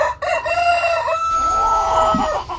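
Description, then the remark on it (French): A rooster lets out one long, loud crow, its strained call rising and then trailing off over a couple of seconds, with no voices around it. “l'affaire la plus emblématique, c'est bien celle du coq Maurice à Saint-Pierre-d'Oléron”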